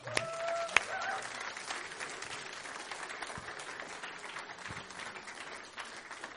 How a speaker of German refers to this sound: Klatsch mal für Jesus. Danke, Jesus.